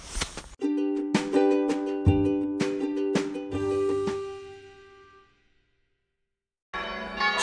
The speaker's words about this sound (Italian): Spero vi piaccia il, il, sottofondo delle campane perché da mezz'ora che suonano e non si fermano più non è che ho tutto il tempo del mondo per registrare, quindi ve lo dico col sottofondo musicale, bellissimo della chiesa.